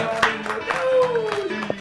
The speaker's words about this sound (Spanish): Muchas gracias. Un aplauso.